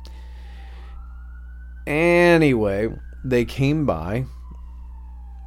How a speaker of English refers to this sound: We were walking in the snow, and uh, excuse the siren. It's Washington State. What do you expect?